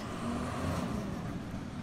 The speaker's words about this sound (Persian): بعد از چند روز ماشین بزرگی به سمت من اومد که روی اونم نوشته شده بود بازیافت.